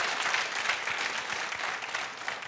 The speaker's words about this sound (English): no, you shouldn't be applauding because I'm getting screwed.